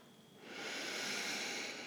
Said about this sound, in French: Vas-y. Inspire en serrant tes poings comme si tu attrapais tes peurs.